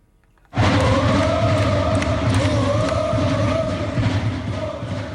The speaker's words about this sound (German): So hat es am 1 am Morgen am Bahnhof Winterthur. Die Fans vom FCW sind nämlich gerade mit dem Extrazug von Bern angekommen und haben wieder den sensationellen Sieg im Cup-Viertelfinal gefeiert.